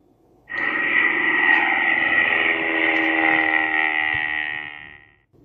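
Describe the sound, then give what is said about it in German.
An airplane sound effect: a steady, loud engine drone with a bright whining tone, starting abruptly, holding for about five seconds, then fading quickly. No voices. “Das klingt ja wie ein Flugzeug.”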